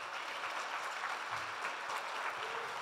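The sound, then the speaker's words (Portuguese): A church audience standing up applauds the Lord Jesus, many hands clapping at once in a dense, continuous patter that holds an even level throughout, with no voices standing out. “Aplauda o Senhor Jesus, fique de pé.”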